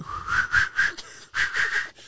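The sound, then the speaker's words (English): Someone whistles a short melodic tune, a run of clear sustained notes with a brief pause in the middle before the melody resumes. “Man went in the tune and was whistling.”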